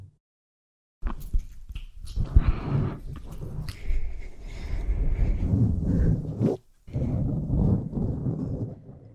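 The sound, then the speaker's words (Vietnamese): ASMR rustling played from a video a friend just opened, crinkly and scratchy textures with soft zipper-like rasps, starting after a second of silence and continuing steadily with a brief pause near the end; no voices. “Đó là những âm thanh từ một đoạn video mà một người bạn vừa mở cho mình.”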